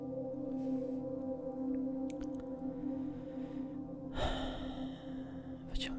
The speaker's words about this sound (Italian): bel respiro, rilassiamoci ancora di più e sprofondiamo nel nostro momento di gioia, di più che gioia, più di serenità, estasi.